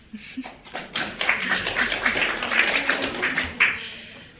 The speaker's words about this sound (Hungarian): Köszönjük szépen a megelőlegezett tapsot is.